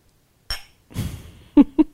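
A single bright clink of glasses in a toast rings out near the start, followed by a soft rustle and two short, clipped vocal bursts.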